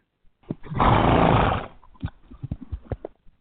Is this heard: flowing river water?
no